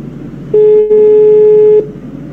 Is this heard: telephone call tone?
yes